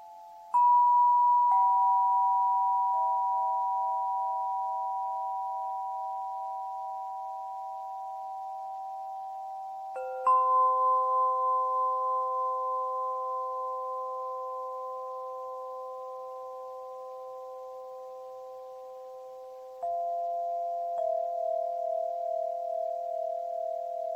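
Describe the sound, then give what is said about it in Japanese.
Crystal instrument tones played freely: pure, sustained notes layered together, with new tones struck every few seconds that ring on and slowly fade into a shimmering overlapping drone. No talking. “復帰しましたクリスタルの音色のご紹介”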